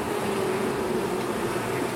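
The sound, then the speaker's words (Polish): A steady, dense drone of many honey bees buzzing together near an open hive, a continuous low hum filling the whole moment with no voices over it. “tu mówimy o pszczole miodnej.”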